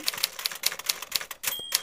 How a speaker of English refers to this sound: that was some good, fast typing. Just with two fingers, two fingers. Just I just typed with two index fingers. That's phenomenal.